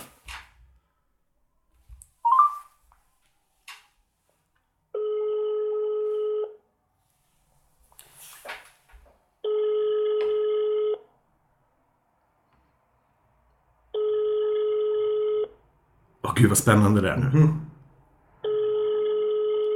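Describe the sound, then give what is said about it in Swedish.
A call placed from a Swedish mobile phone rings over speakerphone: four long, steady electronic tones about every four seconds, with brief talking and a murmur in the gaps between them. “Du får klippa bort två toner tror jag. Tre kanske.”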